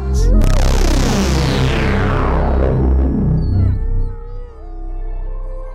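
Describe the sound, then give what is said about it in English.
Several dogs howl together in a loud, sustained chorus of wavering cries, with a few whimpering yips mixed in, fading slightly toward the end. “That means now we have to unleash the dogs.”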